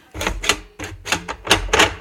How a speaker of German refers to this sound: Macht auch Krach. Ist die Kasse aus der Puppenecke. Die stelle ich mal jetzt wieder weg. So, und da kam tatsächlich ein Zettel raus.